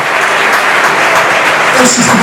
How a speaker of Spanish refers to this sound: Yo creo que la ovación es, merecida porque ha hecho un buen partido, sobre todo los primeros 45 minutos, es un jugador que puede aportar mucho.